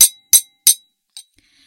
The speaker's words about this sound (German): Das ist das Geräusch von meinem Strohhalm auf meinem Glas. Und ähm, ja, das ist das internationale Zeichen für.